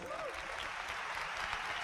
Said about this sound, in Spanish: Entonces nosotros hemos decidido, lo aprendimos de Sergio y Charo para quienes pido un fuertísimo aplauso.